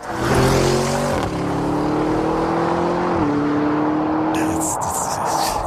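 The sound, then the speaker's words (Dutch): A loud SUV engine revs and drones steadily, its pitch stepping down briefly and then holding, like shifting through gears, with a burst of higher-pitched whirring near the end. “klinkt niet eens als een SUV, hè?”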